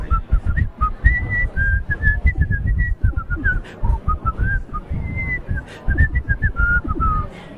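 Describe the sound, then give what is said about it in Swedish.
Someone whistles a melody at an airport gate in Zürich, a steady string of clear held notes rising and falling for several seconds over a dense, busy background murmur. “Ähm, nu har jag ganska dålig äh, akku eller laddning i min telefon så jag inte spela, men borde jag vissla eller något?”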